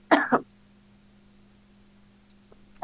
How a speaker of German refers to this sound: Muss ich mich gerade kurz mal räuspern.